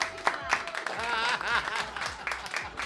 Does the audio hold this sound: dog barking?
no